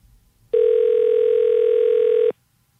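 During a long-distance call placed at 11:30 at night, a telephone tone sounds as one steady, unbroken mid-pitched hum for nearly two seconds, loud and buzzy, starting and cutting off abruptly, with faint low background noise and no voices.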